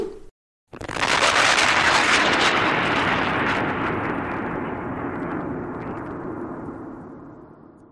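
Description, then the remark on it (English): A sonic boom from a dog fetching a frisbee thrown at supersonic speed: after a brief low hum and a split second of silence, a sudden loud, roaring blast bursts in and slowly rumbles away over several seconds. “How about a 300 mile walkie and a supersonic game of frisbee to get to know each other?”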